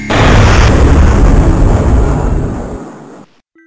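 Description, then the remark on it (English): A loud explosion bursts in at once as lasers are fired at a machine, a broad roaring blast that rumbles on for about three seconds before fading out and cutting off. No voices are heard. “the Santas simultaneously fired their lasers at the machine.”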